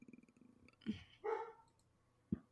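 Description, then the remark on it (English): A dog grumbles, a low pulsing rumble that rises into a short, throaty groaning vocalization, followed by a brief huff at the end. No one speaks. “Yeah, the dog definitely agrees.”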